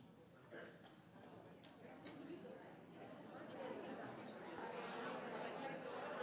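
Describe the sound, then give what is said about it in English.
A roomful of overlapping voices as many people chat at once in small groups, sharing stories with each other, a steady indistinct murmur that grows slightly louder and busier over several seconds. “I love all the chatter, and I hope you're able to hear some of the stories from each other.”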